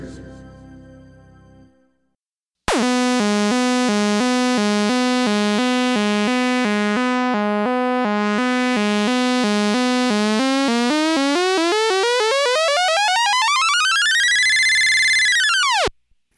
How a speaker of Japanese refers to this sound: 手に入れた愉快なものというのは、あの、音を聞いていただいた通り、アナログシンセなんですけれども、これはですね、あの、なんでしょう。ここに本があるんですけどね。ここにって言ってもちょっと見えませんかあの、別冊大人の科学マガジンという学研さんの出しているものなんですけれども、それの付録というかね